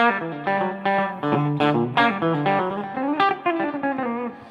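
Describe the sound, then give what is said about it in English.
A distorted electric guitar in drop D tuning plays a heavy riff with chunky repeated notes and sustained chords ringing out loud, with no talking. “keep getting into these drop D things. It's not now I'm in, now I'm in the wrong tuning again.”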